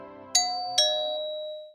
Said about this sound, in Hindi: श्रुति के दरवाजे की घंटी अचानक बजती है